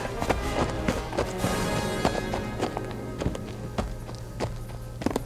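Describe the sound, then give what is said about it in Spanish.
Soft footsteps sneak away quietly at a light, uneven pace, a steady series of quiet taps over a low background hum, with no one speaking. “Es mejor alejarse sigilosamente buscar otra puerta.”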